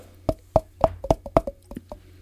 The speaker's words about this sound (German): Warte mal, ich klopfe bei mir mal. Ja.